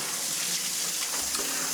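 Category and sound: household object, water running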